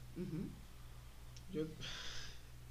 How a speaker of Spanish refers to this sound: Y el perro sigue roncando.